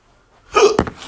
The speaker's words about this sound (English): Oh, fuck, I got the hiccups. Huh? Oh, oh shit, I got the fucking hiccups. Ah, damn it.